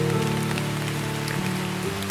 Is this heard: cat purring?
no